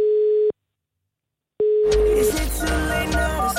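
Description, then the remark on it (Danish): A steady electronic ringback tone sounds twice on a phone line, with a silent gap between, then the call connects into loud, busy background noise. “Og nu ringer den, så må vi se, om det er Justin Bieber, der tager telefonen.”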